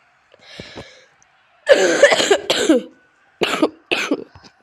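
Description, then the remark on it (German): A coughing fit: a softer cough first, then a burst of several harsh, rapid coughs, a brief pause, and two more hacking coughs trailing into a faint final one. “fucking Husten.”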